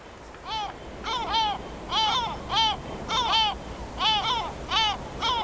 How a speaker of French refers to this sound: Alors ici, il y a beaucoup de goélands. Alors il faut savoir que souvent, on, y a ah, des mouettes. Il faut savoir qu'ici, il n'y a que des goélands chez nous.